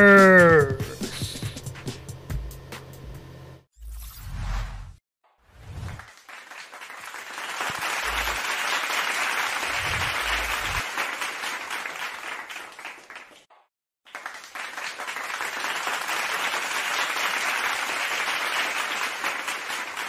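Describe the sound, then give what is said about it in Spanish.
An audience bursts into sustained applause, a dense wash of clapping that swells, breaks off briefly, then resumes just as loudly; a short musical sting and a few low thumps come before it. “Gracias por esos hermosos aplausos.”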